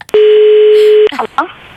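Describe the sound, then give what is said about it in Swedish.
A single steady ringback tone of an outgoing phone call to someone's mother, who is on a bus, drones for about a second, clear, then cuts off as a voice briefly begins to speak. “Mamma sitter i bussen, vi ringer henne då.”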